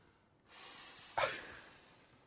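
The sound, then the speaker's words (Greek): A voice imitates a breeze, blowing a steady breathy hiss for about two seconds with a sharper puff of air partway through, then trailing off softly. “Πώ φυσάει εκείνο το αεράκι ένα που κάνει έτσι.”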